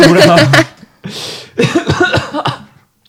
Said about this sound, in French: Ah, tu me fais tousser.